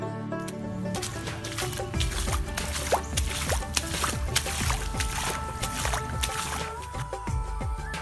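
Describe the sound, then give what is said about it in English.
Feet slosh and splash through shallow rainwater that has collected in front of a temple as someone walks into the temple, in a steady walking rhythm, with a constant low background hum and no talking. “I entered the temple paddling through the water that had accumulated in front of the temple due to rain.”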